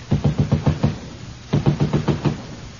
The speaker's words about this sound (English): Can you hear that lifelike knocking? That's the neighbors complaining about the noise.